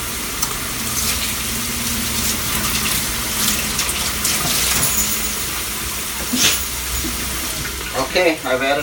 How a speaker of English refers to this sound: All right, I've cut both packets in. I've dumped them both into a bowl. I'm going to add some water.